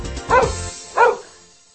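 A dog gives two sharp barks about half a second apart, loud, with no talking around them.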